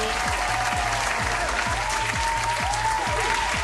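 Loud, sustained applause from a crowd, a dense steady wash of clapping with a regular low thumping beat running beneath it, continuing without pause for several seconds.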